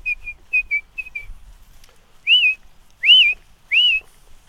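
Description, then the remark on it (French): A song thrush sings clear, whistled notes, repeating each note or short phrase several times before taking up another, with three louder, rising slurred notes, against a quiet background. “Elle prend une note, elle la répète trois ou quatre fois, elle en reprend une autre”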